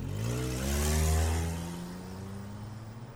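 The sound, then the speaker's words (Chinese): A car engine hums and revs as the vehicle drives along, with Zhang Yaqin driving Zongyi and Dujuan home. Low harmonic tones climb, then ease off, with a broad whoosh of road noise. No one speaks. “张雅琴开着车跟宗仪送杜鹃回家。”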